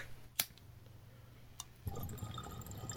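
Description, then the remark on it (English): Bong water bubbling as someone takes a hit of weed: after a quiet start with a single sharp click, a steady, rough gurgle of bubbles starts about two-thirds through and continues to the end. No one talks. “And also, I was excited about that good, good sound effects uh, for our podcast where we smoke weed.”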